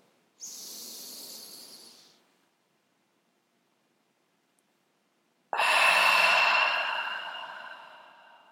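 A slow, deep breath drawn in, a few seconds of held silence, then a long, louder exhale that gradually fades out, as part of a slow deep-breathing exercise, with no talking.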